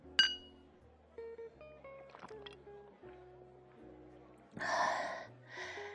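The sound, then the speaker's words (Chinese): A single bright clink of glasses in a toast with 2010 vintage Dom Pérignon champagne rings out at the start, followed by soft, gentle melodic music and a couple of breathy, hissing bursts near the end. “来，干杯！”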